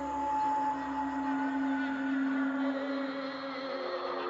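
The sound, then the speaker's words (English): An eerie, ghostly voice-like wail from a psyops tape recording, echoing from the jungle, drones steadily for a few seconds, warbling and reverberant, holding at an even, fairly loud level with no one speaking. “But the next night, late, when the village was asleep, uh, they heard the, the, the, the, the, the, the voice echoing from the jungle.”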